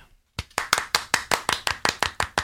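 Two people clap their hands together in a quick, steady rhythm, about a dozen sharp claps after a brief silence, with no talking.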